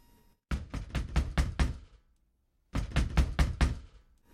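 A fist pounds hard on a door in two heavy bursts of about six rapid, booming thuds each, separated by a short pause, with no voices.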